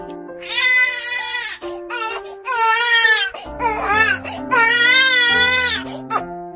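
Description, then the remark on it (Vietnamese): A baby, held in someone's arms and frightened by a harsh voice, bursts into loud wails in long, strained bursts with brief gasping pauses between them, the cries rising and wavering in pitch throughout. “Dường như bị dọa sợ Đôi mắt to tròn đang ẩn ẩn nước muốn khóc Nghe giọng nói hung tận của Trì Vân Thì lập tức khóc à lên”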